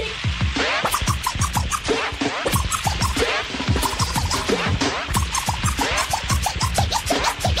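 Rapid DJ turntable scratching cuts back and forth over a steady hip-hop beat, loud and upfront, with dense rhythmic bursts running continuously through the whole stretch and no voice.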